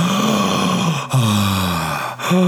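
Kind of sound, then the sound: vocal imitation, imitated labored gasping breath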